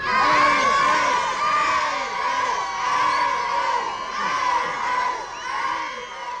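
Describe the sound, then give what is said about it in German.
A large crowd of fans screams and shrieks continuously, high-pitched excited voices overlapping in a loud, sustained roar of cheering and whooping with no pauses, seeing off a train departing at 10 o'clock toward Friedberg in Hesse. “Zurück blieben seine Verehrer, die ihn zünftig verabschiedeten.”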